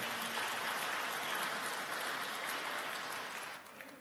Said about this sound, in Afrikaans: Eh, daai daai laaste liedjie was dit so lekker ook om hierdie twee dop te hou en te sien hoe lekker worship julle Kan ons vir hulle 'n lekker hande klap gee?